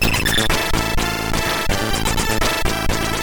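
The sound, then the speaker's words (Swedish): A loud, dense stretch of upbeat video game music in its original version plays on its own, with layered synth tones over a steady, driving beat and regular rhythmic hits, no voices. “Den låter så här i original.”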